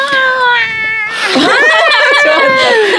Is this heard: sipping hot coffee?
no